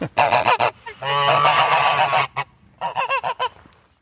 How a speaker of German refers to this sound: Und von daher äh, kennt man also auch Gänse tatsächlich als römische Alarmanlage. Von daher sind die sicherlich auch sehr gut als Alarmanlage in römischer Zeit äh, geeignet gewesen.